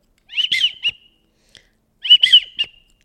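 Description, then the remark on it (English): Two clear, high whistled widgeon calls blown on a duck call, each a quick warbling burst with a trailing note, separated by a short pause; loud with no talking. “my day job is selling duck calls now, and uh, I have a bunch of calls in my hands. So we're talking about that widgeon.”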